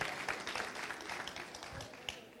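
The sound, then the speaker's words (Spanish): A church audience applauds the wives, a dense, steady patter of many hands clapping at once that holds at a fairly even level throughout, with faint voices mixed into the clatter. “Den un aplauso a las esposas.”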